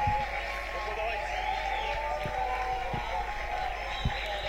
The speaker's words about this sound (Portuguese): Ah, estão aqui pessoas a gritar muito na sede da Iniciativa Liberal.